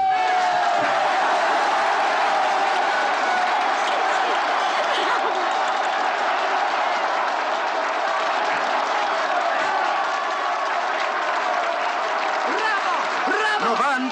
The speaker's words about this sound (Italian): 32 minuti di applausi!